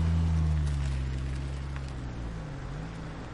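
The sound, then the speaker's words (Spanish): A car drives slowly along a dirt road, the engine idling at low speed, a steady low rumble with a faint hiss of tyres beneath it, continuous throughout. “Se gira hacia el sonido del coche.”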